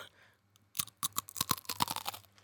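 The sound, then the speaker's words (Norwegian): Crisp crunching of a cookie being chewed, a quick run of sharp bites and cracks that starts after a brief quiet moment and continues steadily, with no talking. “Veldig bra tygg.”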